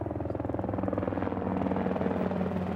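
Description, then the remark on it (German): A helicopter's rotor thuds in a rapid, steady rhythm over a low engine drone, loud, growing slightly stronger as it passes overhead; its crew spotted about six suspects at dawn. “Die Besatzung eines Hubschraubers will in der Morgendämmerung etwa sechs Verdächtige erkannt haben.”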